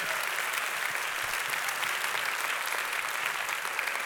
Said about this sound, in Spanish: Amén. Dele un fuerte aplauso al Señor ahí en su lugar.